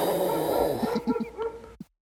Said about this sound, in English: that dog's barking because I was terrible.